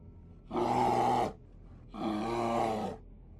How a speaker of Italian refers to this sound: Un orso. Probabilmente un enorme orso bruno pronto per la cena.